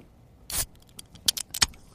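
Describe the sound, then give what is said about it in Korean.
A beer can being cracked open: a short fizzy hiss followed by a few sharp metallic clicks and rattles, fairly quiet, with no voices. “맥주 캔 따는 소리입니다.”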